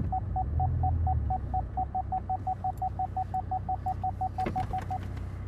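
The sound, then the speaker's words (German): A car's parking sensor beeps in a steady run of short, mid-pitched tones, roughly four or five per second, over a low engine rumble, as the car reverses to park in front of a house, with no one speaking. “So, jetzt es so anfangen zu piepen, genau.”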